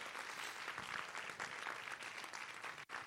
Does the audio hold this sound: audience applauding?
yes